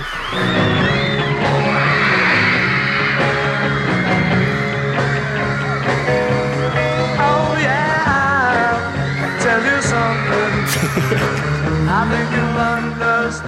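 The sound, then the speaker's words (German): A dense crowd of studio audience members at The Ed Sullivan Show on US television screams continuously at a loud, steady level, with high-pitched shrieks and whoops swelling over what sounds like music playing underneath. “Und was haben sie alle geschrien, die Zuschauerinnen und Zuschauer, die da waren?”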